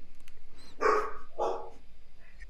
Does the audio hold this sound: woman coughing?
no